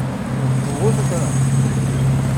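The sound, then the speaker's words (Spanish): Steady low rumble of road traffic on Avenida Basolo, with engine hum from cars passing along the avenue, continuous and fairly loud throughout. “Ahorita que terminen estos coches de pasar, nos vamos hacia allá.”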